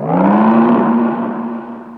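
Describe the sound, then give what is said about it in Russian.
A single deep, sustained lighthouse foghorn blast, loud and steady with a low droning pitch that rises slightly at the start and holds for about two seconds before easing off. “Ревун заревел.”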